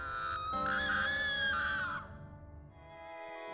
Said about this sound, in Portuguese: E o que despertou não só os dois fugitivos, mas como todas as casas do campo da alegria, foi um grito estridente de horror.